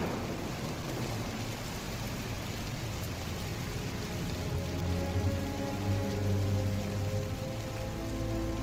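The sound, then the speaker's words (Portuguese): Steady rain falls in a dense, even hiss, with a low rumble of thunder swelling briefly toward the end. No voices are heard. “Sentado em seu quarto, deslumbrando pela janela o fim desse dia de chuva”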